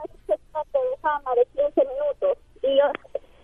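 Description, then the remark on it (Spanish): A voice coming through a tinny, band-limited phone line, thin and muffled with the highs and lows cut off, speaking in short choppy bursts at moderate loudness. “Primero cómprate un celular que se oiga bien. No, es mi radio que no se escucha bien.”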